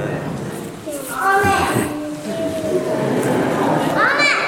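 A small child calls out loudly from the back pews during a church service, one drawn-out shout followed later by a brief rising cry, echoing over a low murmur of background noise.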